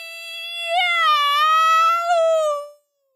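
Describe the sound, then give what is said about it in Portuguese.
A single long, loud meow, drawn out for nearly three seconds with a rising and falling wail, most likely a person's voice imitating a cat while telling a story in Portuguese. “O gato se aprumou, encheu os pulmões e soltou o mais alto miau que já tinha dado na vida.”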